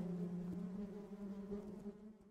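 A steady, droning buzz of bees fills the space, a continuous hum with a slight wavering pitch and no voices, fading a little toward the end.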